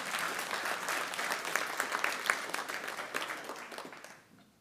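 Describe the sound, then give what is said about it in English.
An audience bursts into sustained applause, a dense crackle of many hands clapping at fairly steady loudness for several seconds before quickly tapering off into quiet. “Whoever clapped, we should all just clap, because that's just amazing, isn't it?”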